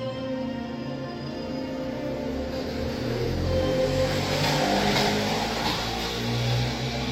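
A motorcycle engine runs steadily and loudly, its revs swelling upward in the middle and staying high, with a continuous droning hum and no voices.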